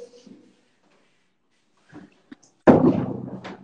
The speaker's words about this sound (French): Fermez la porte. Deux secondes, je ferme la porte.